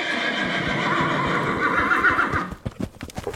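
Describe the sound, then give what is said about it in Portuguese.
A black horse with a dapple-grey haunch lets out a loud, drawn-out whinny lasting a couple of seconds as its rider swings a leg over it, followed by a quick series of hoof clops on hard ground. “Quando eu joguei a perna por cima do meu cavalo, ele relinchou que o chão tremeu e o galope dali para casa, eu não sentia nem o pelo do cavalo.”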